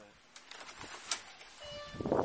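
An automatic door opens with a short, steady electronic chime tone sounding partway through, surrounded by light clicks and shuffling noise that swells louder near the end.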